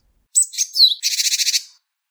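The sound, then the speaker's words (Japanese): A Japanese tit gives a two-part call forming a two-word sentence: a few clear, high whistled notes meaning 'be alert', followed by a rapid, buzzy string of harsh 'jee-jee-jee' notes meaning 'gather', fairly loud, with no voices. “でこれをピーツピージジジ警戒集まれっていう二語文にするってことを僕は見つけたんです。”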